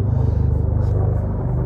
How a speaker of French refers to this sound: Je ne sais pas, entendez-vous un avion? Euh, ben, ouais. Là-bas. Ouais, elle basse. Non, c'est un hélicoptère. Ah! Il y en a beaucoup d'hélicoptères dans le ciel, trouvez pas?